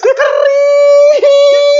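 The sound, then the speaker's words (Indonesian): A dog howls in one long, loud, steady note with a rich, ringing tone, breaking off briefly near the end before picking the howl right back up. No one talks over it. “Iya, sampai suaranya kering beneran tuh pun kering”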